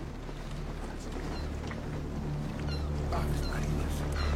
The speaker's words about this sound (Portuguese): Gaivotas! Gaivotas! Gaivotas! Os pássaros!